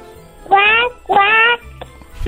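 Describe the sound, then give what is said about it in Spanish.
A voice imitates a duck with two loud, nasal quacks in quick succession, each about a third of a second long, followed by quiet background murmur. “Mira, ¿puedes hacer el ruido de un pato?”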